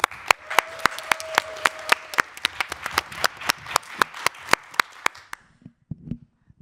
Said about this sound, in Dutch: En geef haar een daverend applaus.